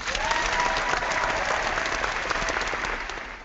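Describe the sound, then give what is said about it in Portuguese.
An applause jingle sound effect pulled from the archive: dense, steady clapping from a crowd that holds at an even loud level for a few seconds, then begins to taper slightly at the end, with no talking. “Puxa, puxa a vinheta dos aplausos lá do baú, Enio.”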